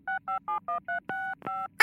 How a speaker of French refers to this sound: tu dois composer le numéro de téléphone.